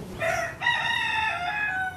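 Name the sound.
chickens clucking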